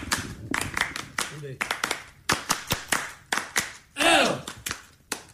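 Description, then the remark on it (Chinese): Sharp, uneven hand claps ring out in quick bursts, with people talking and laughing over them; a brief rising vocal whoop cuts in partway through. “掌声掌声掌声啊！”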